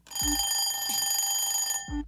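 A bright, steady alarm clock rings continuously for nearly two seconds, loud, with a soft thump at its start and another as it cuts off.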